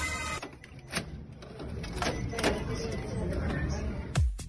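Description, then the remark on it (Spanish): A typewriter clacks out a handful of sharp, irregular keystrokes over a steady mechanical hum, ending with a heavier thunk like the carriage being pushed back. “El sonido misterioso es una máquina de escribir.”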